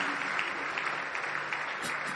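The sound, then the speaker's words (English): A crowd at a church gathering on Christmas Day claps steadily for a bishop after his teaching, a dense wash of many hands clapping together with no gaps, loud and sustained throughout, with occasional sharper claps standing out on top. “If we are clapping, let's clap properly.”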